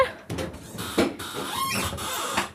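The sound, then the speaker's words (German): An aircraft emergency door is opened with its door lever and pushed outward, sliding out until it locks: a series of mechanical clunks and scraping bursts, with a short high squeal partway through and a final thump, no voices. “Und jetzt gehst du an den Haltegriff Nummer 2 an der Tür selbst und drückst die Tür nach außen, bis sie verriegelt.”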